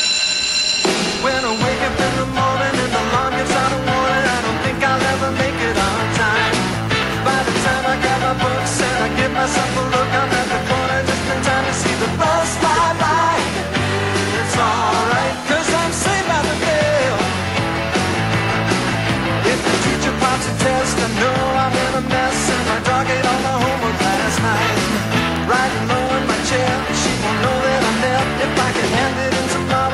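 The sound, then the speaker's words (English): The upbeat theme song of a Saturday-morning TV sitcom plays loudly and continuously, with a driving band and steady beat filling the whole stretch and no one talking over it. “to top that by a little-known show on Saturday mornings called "Saved by the Bell,"”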